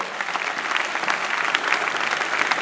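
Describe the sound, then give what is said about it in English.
An audience claps steadily, a dense, even wash of many hands with no pauses, sustained at a fairly loud level for a few seconds and no voices standing out. “When it comes to soul winning, if you are clapping, clap better.”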